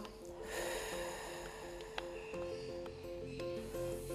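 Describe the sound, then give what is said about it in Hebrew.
A single deep breath is drawn in and then slowly exhaled, airy, with a soft steady hum underneath and no talking; one of several deep breaths taken as a breathing exercise. “לנשום שמחה ולנשוף החוצה עצבות, צער, עצבים, מתחים. ננשום נשימה נוספת.”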